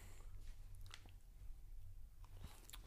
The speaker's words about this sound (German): Hm, das Kauen. Man hört richtig schön ein Kauen auf dem Mikro. Wow. Das ist tatsächlich geil.